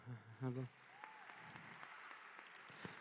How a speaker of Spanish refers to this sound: Gracias, bro. Denle un aplauso.